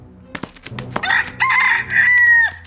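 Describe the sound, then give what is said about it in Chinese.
A rooster crows loudly, a few short clucks leading into a long, bright, stretched crow that rises and holds before dropping off at the end. “大公鸡，我们一起跑！”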